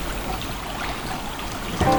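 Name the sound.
splashing water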